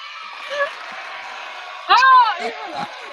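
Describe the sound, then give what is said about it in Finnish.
An audience at Yle Pop 2020 cheers in a steady, noisy roar, with a loud rising whoop breaking out partway through and a couple of shorter yelps trailing after it. “yleisökin saatiin tänne.”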